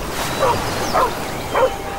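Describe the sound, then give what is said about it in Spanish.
The dog Jasper, appearing and wagging its tail, gives three short, yelping barks at a steady pace, each with a whining, whimpering edge, moderately loud, with no one talking. “El bueno de Jasper apareció moviendo el rabo, y al acariciarle, una nube cruzó la luna, y con ella desapareció la ilusión.”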